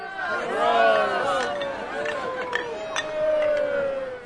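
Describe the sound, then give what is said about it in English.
A lively outdoor beer garden crowd chatting on wooden benches under chestnut trees, a steady babble of overlapping voices with occasional louder exclamations and a few sharp clinks of one-liter beer mugs rising above the hubbub. “You have people chatting away, and everybody is happy.”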